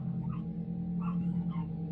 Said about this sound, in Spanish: Otra vez se alteraron mis perros.